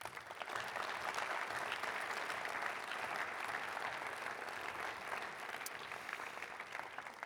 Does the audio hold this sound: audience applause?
yes